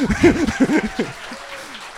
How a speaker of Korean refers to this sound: 박수 쳐주세요.